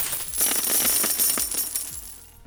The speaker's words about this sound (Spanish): Y dijo, lo que usted está haciendo es perder dinero y se mete la mano en la bolsa y tira un puño de monedas al piso y se mete las manos otra vez a la bolsa y agarra otro puño de monedas y las avienta al piso.